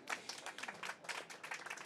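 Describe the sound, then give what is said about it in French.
An audience applauds Charlotte Casiraghi, who presides over the Rencontres Philosophiques de Monaco, a steady, dense patter of many hands clapping throughout at a moderate, even level with no one speaking. “Et je voudrais et je voudrais aussi qu'on applaudisse euh, Charlotte Casiraghi, qui préside euh, les rencontres philosophiques de Monaco et ses rencontres.”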